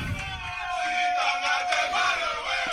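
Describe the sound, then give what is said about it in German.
Cameroon national team football players chanting loudly together in unison ahead of the Africa Cup, a dense, energetic wall of voices with a steady sustained tone running through it, holding strong for the whole stretch. “Also, die Nationalspieler von Kamerun haben richtig Bock, äh, das hört man, auf den Afrika Cup.”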